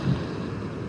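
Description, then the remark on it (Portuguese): A steady, broad wash of ocean surf fills the moment, a soft continuous roar with a slight swell at the start and no voices over it. “Vai se conectar ao som do mar.”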